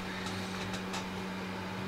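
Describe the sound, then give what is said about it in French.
An electric fan runs steadily with a continuous motor hum and a soft airy whoosh, fairly loud, with a few faint clicks early on and no voices, in hot weather. “On entend bien le ventilo.”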